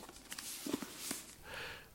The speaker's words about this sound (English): It's the sound of this book opening slowly in the late morning, quietly, though as if read in private in a dark corner. The paper subtly creaks as the spine separates and opens. A tiny buzz from a nearby table lamp is the underscore.